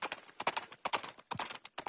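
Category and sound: animal, horse hooves clip-clopping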